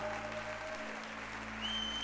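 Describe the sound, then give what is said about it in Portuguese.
An audience applauding to the Lord, a dense, steady wash of many hands clapping at once, loud and continuous, with a sustained musical tone humming underneath. “Aplauda, aplauda, aplauda, aplauda.”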